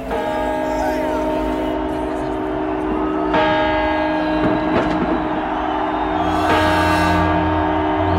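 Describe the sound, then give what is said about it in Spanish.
Alarm bells on a spaceship ring continuously with a dense, sustained metallic clang, loud, swelling with fresh strikes partway through and near the end, sounding because a cleaning robot has activated the self-destruct sequence. “¿Qué campanas más parecidas a la del hermano? ¿Oyes? ¡Es la alarma!”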